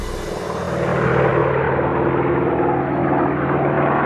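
An American Lightning P-38 propeller airplane, flown by Antoine de Saint-Exupéry, drones steadily overhead off Marseille on 31 July 1944, its loud engine hum holding a constant pitch with a broad rushing roar throughout. No voices are heard.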